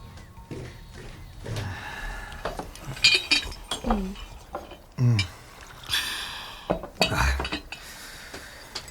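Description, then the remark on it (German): Teacups and saucers clink and rattle in a kitchen as three detectives and their client drink hot tea, with scattered bright chinks of china and a few soft sips and breaths between them. “Gemeinsam genossen sie einen heißen Tee, den Jerome aufgebrüht hatte.”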